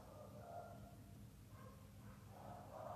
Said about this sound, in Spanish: Hay unos perritos ladrando.